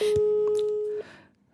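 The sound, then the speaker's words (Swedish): A single steady ringback tone from a phone call being placed, a clear pure beep lasting about a second before cutting off, with faint background noise around it and no one speaking. “Ja, det är jättemånga faktiskt som har sagt så här, vi vill gärna höra när ni ringer okay.”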